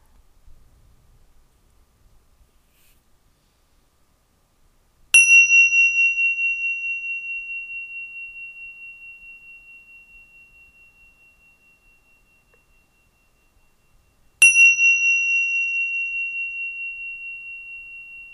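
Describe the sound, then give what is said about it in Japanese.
A clear meditation chime is struck twice, several seconds apart, each bright metallic tone ringing out and fading slowly into near silence, with no voices; the chime signals the start of a meditation. “最初にチャイムを3回鳴らしますので3回鳴ったら瞑想が始まります。”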